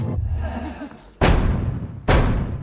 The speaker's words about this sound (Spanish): Llaman a la puerta.